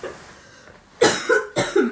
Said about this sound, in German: Eigentlich kann ich keinen Podcast aufnehmen mit dem Husten.